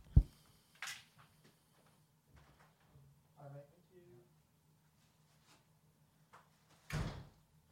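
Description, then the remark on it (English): A door is opened and shut after someone bangs hard on it, with sharp thumps at the start and a heavier clunk near the end; faint voice sounds and rustling fill the quiet stretch between. “Someone's banging on my door really hard.”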